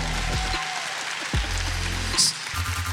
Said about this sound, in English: Give it up, clap. There we go.